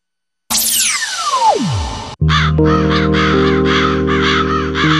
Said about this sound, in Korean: 어디선가 예사롭지 않은 소리가 들려옵니다. 우리에게 불운의 상징으로 알려진 까마귀 소리인데요.